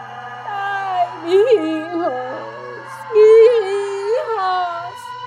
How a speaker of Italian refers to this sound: Un singhiozzo, un pianto, sempre più forte, e più vicino, Carmelita rimase immobile ai piedi del letto, congelata dal terrore. Il pianto nel frattempo si trasformò in grida.